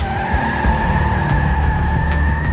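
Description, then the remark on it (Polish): A car takes off at full speed, tires squealing in a long, steady high-pitched screech over a loud, rumbling engine, continuous throughout, with no voices. “Pobiegliśmy z powrotem do auta i ruszyłem z kopyta.”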